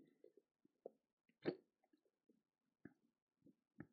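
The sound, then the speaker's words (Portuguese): Quiet sipping and swallowing sounds of a person drinking water, with small wet clicks and gulps scattered over a few seconds, one fuller gulp standing out near the middle, no talking. “Bebi água intencionalmente para te deixar no suspense.”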